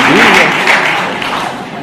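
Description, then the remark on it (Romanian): A crowd applauds steadily for a couple of seconds for someone who wrote beautifully, a dense wash of clapping that fades slightly toward the end, with a faint voice briefly audible at the start. “A scris frumos și a fost aplaudat.”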